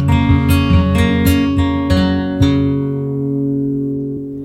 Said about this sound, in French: Et on écoute une composition